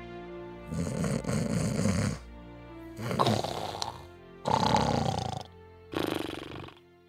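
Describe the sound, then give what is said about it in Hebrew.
Loud, rumbling snores repeat in four long bursts with brief quiet gaps between them, a deep rasping rhythm of breathing, with no talking. “מה זה, מי זה נוחר פה? מי זה, מי זה נוחר?”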